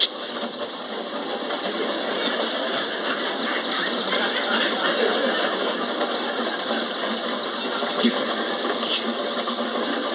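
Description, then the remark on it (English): Bicycle wheels spin with a freewheel ratchet clicking rapidly and continuously for the whole stretch, steady at moderate loudness, with no voices present. “She suddenly whisked her wheels round and dashed straight at him.”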